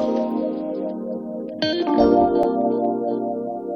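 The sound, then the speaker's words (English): Loud, dense music plays steadily throughout, heavily processed with chorus and distortion-like effects and a brief swell in the middle; no one speaks. “All right, the background music is too loud.”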